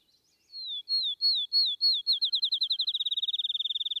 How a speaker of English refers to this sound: Have you heard the song of the field sparrow?